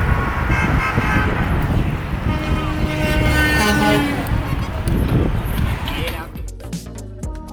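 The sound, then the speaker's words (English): Car and truck horns honk repeatedly from below as vehicles pass under an overpass during a celebration, sustained blaring tones overlapping amid loud, busy crowd and traffic noise, fading toward the end. “And what was actually kind of heartwarming, gave me goosebumps that we could actually get along, was when we went over the overpasses, almost every car and truck would honk at us as they went under, just adding to the celebration.”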